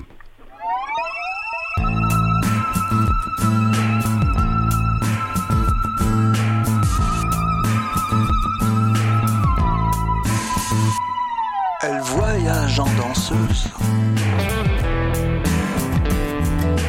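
The loud instrumental opening of a French song about cycling plays with a steady pulsing beat and a long, sustained wavering melody line that slides and shifts near the end. No singing is audible.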